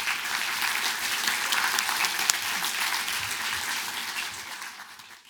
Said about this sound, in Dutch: natuurlijk een heel hartelijk applaus voor …